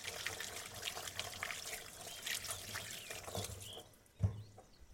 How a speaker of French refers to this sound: Et là, vous entendez, je suis en train de me laver les mains pendant que je vous parle parce que dès que je casse des œufs, je me lave les mains après.